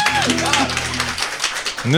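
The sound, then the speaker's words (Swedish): A group claps in steady, dense applause for performers about to play the song Dalvisan, lasting a couple of seconds, with a sustained low tone and a voice under the clapping and a rising pitch sliding in at the end. “En applåd här till oss!”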